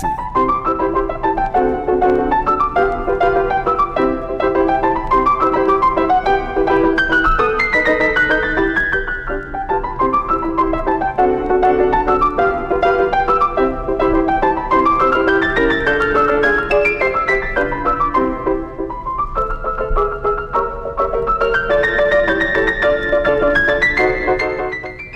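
Solo piano plays a lively, flowing melody with quick rising and falling runs over steady chords. The sound is close, full and continuous, with no voices.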